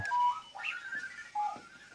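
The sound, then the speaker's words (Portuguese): A Clocky rolling alarm clock with large wheels on its sides rings with shrill electronic chirps and warbling beeps that jump in pitch, fairly loud, with no one speaking. “corre pelo quarto fora aos gritos a fazer este som insuportável”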